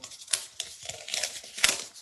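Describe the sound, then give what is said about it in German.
Paper rustles and crinkles in several crisp, uneven bursts as an audience member in row 20 turns the pages of a programme booklet during a performance. No one speaks, and the rustling stays fairly soft throughout. “Und dann habe ich so, hörte ich so ein Papier rascheln, so ein Geräusch, so”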